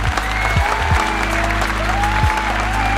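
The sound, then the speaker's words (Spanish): A crowd applauds steadily for the whole stretch, dense overlapping claps forming a loud, even wash of sound with a low, droning tone running beneath it. “Ah, un aplauso, otro más.”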